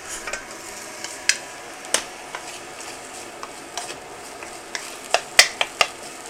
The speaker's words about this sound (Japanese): で結構まあ強めの火でガンガン炙ってですねもう煙が立ち上るぐらい炙ったフライパンにぶっ込むなんかいい音がしたのは最初だけですね あとは大して音はしませんね